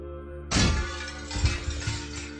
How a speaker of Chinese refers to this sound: 说着，方墨一拳将侧窗的玻璃打碎了，伸进胳膊一拉，窗户开了。